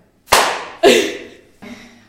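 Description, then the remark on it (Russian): Three sharp hand claps used as a sync marker, each a loud crisp crack with a short ringing tail, the third somewhat softer, spaced unevenly over about two seconds with no talking. “Надо сделать хлопушку.”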